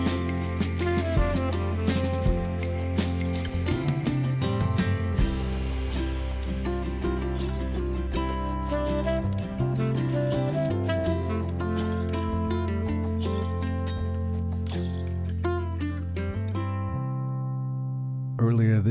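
A song plays steadily with sustained bass, layered harmonic tones and dense rhythmic hits, loud and full throughout before thinning out near the end as it winds down.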